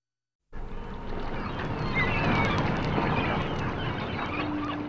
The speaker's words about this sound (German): Hört mal, wo wir heute mit euch sind. Der Wind weht, Möwen kreischen, ein Schiff tutet von ferne. Ja, wir sind in einem großen Hafen